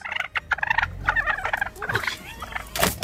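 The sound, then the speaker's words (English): In a Washington, D.C. neighborhood, a gigantic wild turkey gobbles loudly in a rapid, warbling rattle of throaty notes lasting a few seconds, with a brief pause and a final harsh burst at the end. “Gigantic turkey just kind of like jumps up towards my face to kind of like almost claws me in the face.”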